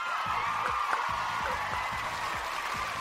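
Steady applause from a crowd welcoming a guest fills the whole stretch, a dense wash of clapping with a few voices cheering underneath, holding at an even level without dying down.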